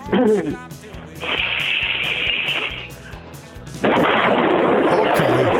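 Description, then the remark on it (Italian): Someone blows hard into a telephone receiver during a line test so the sound intensity can be adjusted, producing two bursts of rough, distorted rushing noise: a steady, thinner hiss first, then a louder, full-bodied roar that continues to the end. “Provi a soffiare sulla cornetta abbastanza forte che devo regolare l'intensità della- dei watt del suono.”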